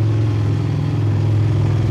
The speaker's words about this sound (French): et, là, il y a un connard avec sa moto.